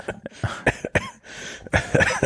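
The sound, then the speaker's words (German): A sudden, spontaneous fit of coughing, roughly a dozen harsh bursts in quick succession over two seconds, fairly loud with no talking. “ich habe gerade so einen spontanen Hustenanfall.”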